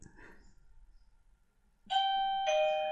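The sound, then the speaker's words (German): A doorbell rings out with a clear two-note ding-dong chime, loud, following a stretch of quiet low background murmur. The second tone sustains and slowly fades. “Wer kommt denn jetzt noch?”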